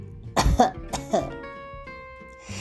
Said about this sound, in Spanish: A continuación, lo que hizo para llamar la atención fue algo tan sencillo como toser un par de veces